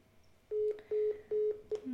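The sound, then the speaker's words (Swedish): Four short, steady electronic phone tones beep in a quick even rhythm, then a fifth brief tone cuts short, like a number being dialed on a phone keypad during an accidental call, clear with no voices. “nu ringde jag igen.”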